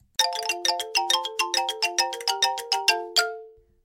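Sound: doorbell ringing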